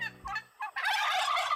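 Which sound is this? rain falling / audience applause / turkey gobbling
turkey gobbling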